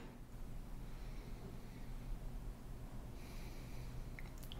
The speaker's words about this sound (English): can you demonstrate incorrect breathing?